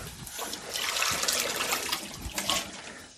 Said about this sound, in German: So, jetzt wird es Zeit, dass ich das Wasser dazu gebe.